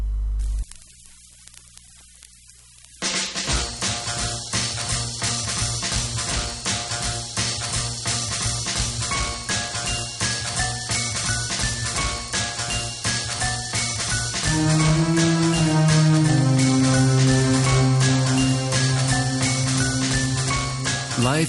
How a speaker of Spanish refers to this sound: Una canción con un rollo un poco trip hop que suena así de bien.